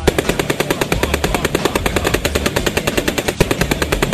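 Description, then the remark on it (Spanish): A sustained machine gun burst, fired across the yards of a neighbourhood on a commander's shouted order, rapid sharp shots firing in an even, relentless rhythm for several seconds, loud and alone with no voices. “Pero bastó, un grito el comandante para que una rafa cruzara los patios del vecindario.”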